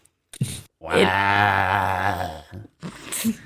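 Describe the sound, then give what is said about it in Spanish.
A person imitates a moose call, the sound used to make a moose go away, with one long, low, droning groan lasting about two seconds, loud, framed by short breathy grunting sounds before and after. “es el sonido para que se vaya. Pues si acaso vienen alces en casa, lo ponéis.”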